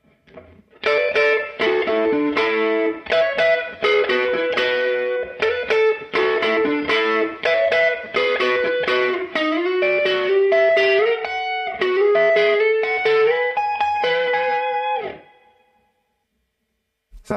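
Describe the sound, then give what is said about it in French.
An electric guitar played through a tweed amp pedal with light crunchy overdrive and a little reverb plays a steady, busy riff of plucked notes and chords for about fifteen seconds, prominent, ending with a ringing note that fades out. “Là, on commence juste à faire un petit peu de, de crunch.”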